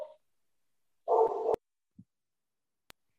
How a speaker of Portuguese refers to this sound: Gente, esse cachorro chato.